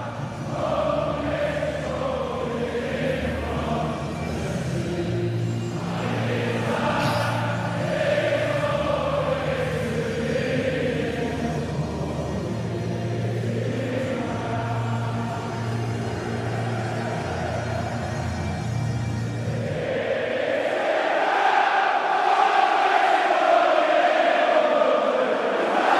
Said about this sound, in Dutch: ze zingen daar dat saaie eh, … van …